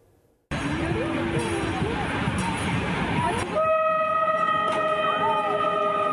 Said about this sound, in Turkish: Acı acı çaldı trenin kornası, duymadı. Scooter'la tren yolundaki hemzemin geçitten geçiyordu.